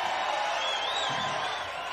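A live audience makes itself heard while the speaker waits, cheering in a steady, dense roar. A high whoop or whistle rises briefly above the noise midway through. The cheering holds at an even loudness for about two seconds.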